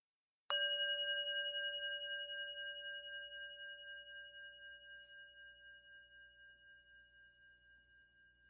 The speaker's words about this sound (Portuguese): Permita que o toque do sino seja um convite ao relaxamento.